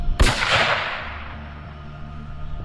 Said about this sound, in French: Il lève son fusil automatique et, sans dire un mot, il presse la détente.